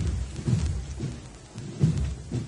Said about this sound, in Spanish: Y ahora el aplauso es para la banda que viene de Jaén y que ahora se va en paso de ordinario.